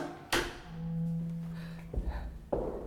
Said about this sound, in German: Oh, Ruhe, ich klopfe.